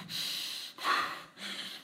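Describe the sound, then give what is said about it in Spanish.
Three slow, deep, airy breaths: a long inhale, a sharper exhale, then another inhale, with no talking. “Espérame, estoy, respirando.”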